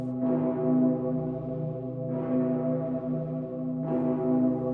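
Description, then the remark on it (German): The huge, deep-toned bell of Cologne Cathedral, known as the Dicker Pitter, tolls slowly: three heavy strokes about two seconds apart, each ringing into a long, rich hum that overlaps the next. It's loud, with no voices. “Zum Beispiel hier der dicke Pitter in Köln.”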